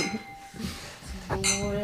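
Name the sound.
glasses clinking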